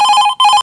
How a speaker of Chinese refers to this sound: 放在书桌上的无线听筒还在响，可能是爸爸打来的，赶快接吧。